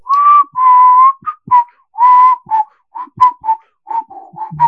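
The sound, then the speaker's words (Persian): Loud whistling in a rapid run of notes: a few longer held tones at first, then a quick string of short chirpy bursts, with no talking. “سوت بزنید”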